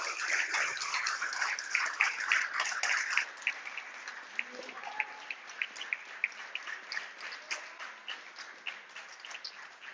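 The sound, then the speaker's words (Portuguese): A crowd of people applauds for the Lord with dense, overlapping claps for the first few seconds, then the clapping thins to a quieter, looser scattering of individual claps that continues to the end. “Pode, vamos bater palmas para o Senhor.”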